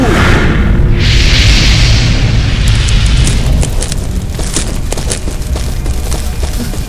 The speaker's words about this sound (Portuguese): Explosão de fogo!